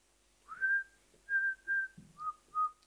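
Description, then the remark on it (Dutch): A woman whistles a short tune alone as she starts walking down a hill, five clear sustained notes with brief pauses, the last two a step lower, moderately loud. “Fluitend zet ze de afdaling in.”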